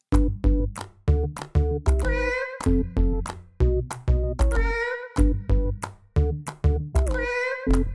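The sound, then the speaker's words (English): Kitten meows played on a keyboard form a bouncy, looping tune over steady percussive beats, with a longer drawn-out meow returning every few seconds. Loud, with no talking. “My operating system now features 17 databases of information on emotions, and I have also added a kitten keyboard.”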